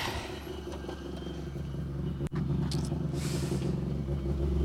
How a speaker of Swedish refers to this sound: Citroängen första R2-bil. Som i och med det har tagit målflagg, rullar mot oss.